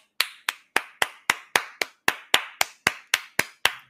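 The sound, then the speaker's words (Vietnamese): A steady series of about fourteen sharp hand claps at an even, moderately quick pace, crisp, with no talking. “ok ví dụ giờ như không nói gì mấy bạn hết như ngồi vỗ tay”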